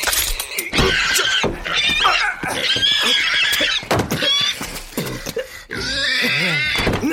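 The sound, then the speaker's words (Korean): A pig squeals in distress as it is being slaughtered, a run of loud, shrill, piercing screams that barely pause for several seconds, rising and wavering in pitch. “얼굴에 온통 돼지 피하여.”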